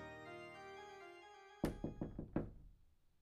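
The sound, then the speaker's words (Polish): A sustained musical tone fades out, then a police constable knocks on a door: about five quick, solid raps in a brisk, uneven rhythm, fairly loud, with no voices. “Do drzwi zapukał posterunkowy Pawlak.”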